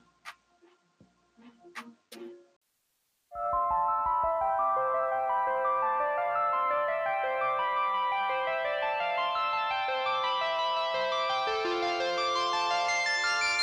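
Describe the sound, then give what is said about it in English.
A pop rap track plays loud: a few sparse clicky beats, a brief gap, then a dense, bright synth-driven groove kicks in and runs steadily to the end. “I'm sure some of y'all heard of her, but uh, she got a nice track out right now.”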